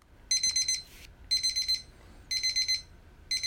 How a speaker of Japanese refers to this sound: これはタイマーやな俺でも分かったえー、っとカップラーメンを待つタイマーですうんこのピピピって音で幸せ感じられるんやったら、ま次元爆弾でやばい瞬間でも幸せ感じてそうやな。